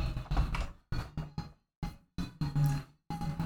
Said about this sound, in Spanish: Esta, esta silla suena mucho.